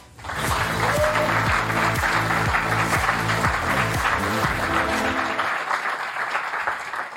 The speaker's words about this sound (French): Et le 22 novembre prochain, il sort son nouveau bébé, Mars Express un tonnerre d'applaudissements pour Jérémy Perrin.